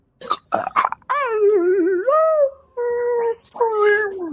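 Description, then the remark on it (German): A dying wolf gives a few sharp, snapping yelps, then lets out long, wavering whimpering howls that slide down in pitch and fade, fairly loud with no talking. “Der Wolf, der Wolf schnappt noch einmal um sich und verendet.”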